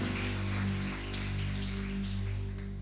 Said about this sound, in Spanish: Dele un fuerte aplauso a nuestro Dios, a nuestro Rey, a nuestro Salvador, a nuestro Señor Jesucristo.